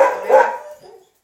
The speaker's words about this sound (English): Oh, now I've got loads of dogs.